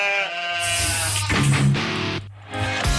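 A sheep bleats loudly, a wavering, nasal cry that carries through most of the moment, with a steady low drone running underneath.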